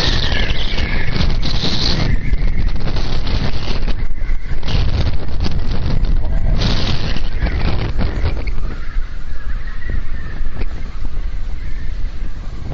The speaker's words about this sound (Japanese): いや風の音、これ、風の音。